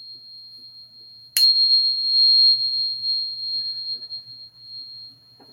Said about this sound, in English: I like sound healing. I have a lot of different ones. I have these little crystal tuning ones too.